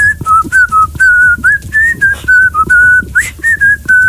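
A person whistles a lively melody alone, a steady run of short, clear, fairly loud notes that hop up and down in pitch with brief breaths between phrases.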